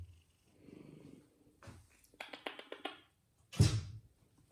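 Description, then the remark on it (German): A cat purrs softly in short, rumbling bursts, with a few clicking taps and a louder snuffling burst near the end; no one speaks. “Ja, der Schnurren war eine Mieze.”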